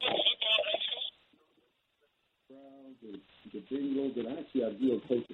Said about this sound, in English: Wait a minute, hold on. Hold on. I, lost you on your phone there. I got him on hold there.